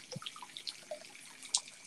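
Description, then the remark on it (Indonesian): A light, irregular trickle of liquid with small splashy drips and a brief sharper splash near the end, fairly quiet and with no talking, like someone urinating. “saya sedang pipis.”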